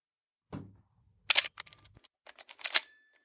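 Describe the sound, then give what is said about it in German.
A mechanical film camera shutter clicks, followed by a rapid series of ratcheting, clicking strokes as the film advance lever is wound, crisp with no voices. “Erneut zog er den Schnellspannhebel und schaute durch den Sucher. Wieder öffnete und schloss sich die Blende seiner Kamera im Bruchteil einer Sekunde und belichtete den Film in ihrem Inneren.”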